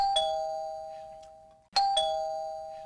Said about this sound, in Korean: 비밀 아지트 오후 5시쯤 김영철이 일종 대형 차량 사다리차 책을 보고 있는데 현관벨이 울린다.